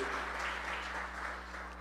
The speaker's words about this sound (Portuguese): E se você é um adorador desse Deus, dê uma salva de palmas a Ele. Amém? Glória a Deus.